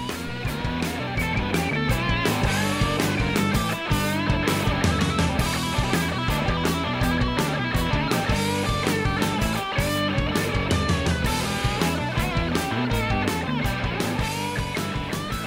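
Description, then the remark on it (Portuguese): Loud, dense blues rock from a 2007 album plays continuously with no talking, a full band driving along on a steady drumbeat with thick guitar and bass filling out the sound. “Então esse é o som que vocês estão ouvindo, … de 2007.”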